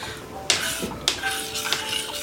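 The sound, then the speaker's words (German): A metal pot clattering in a kitchen as someone cooks porridge early in the morning, three sharp clanks about half a second apart, each ringing briefly with a bright metallic tone, moderately loud. “Da kocht sie sich nämlich Porridge.”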